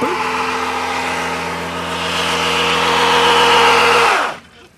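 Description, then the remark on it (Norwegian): A car engine screams at high, steady revs during a burnout by the oldest car enthusiast at a meet of nearly 100 cars, a loud roar layered with harsh hissing tire noise, holding for about four seconds before abruptly dropping off. “Denne børnelyden, f.eks.”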